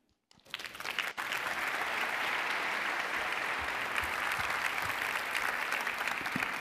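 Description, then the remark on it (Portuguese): A crowd breaks into sustained applause, a dense, steady wash of clapping that starts abruptly and holds at a constant level throughout. “Pode aplaudir um pouco mais forte.”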